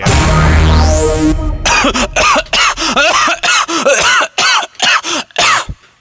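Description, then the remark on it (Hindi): A short rising electronic swoosh gives way to a long run of loud, hacking coughs, about a dozen harsh bursts in uneven clusters with brief gasps between them; a cough linked to smoking tobacco cigarettes. “इस खांसी को रोकने के लिए एक खास मैसेज तंबाकू सिगरेट छोड़ दो”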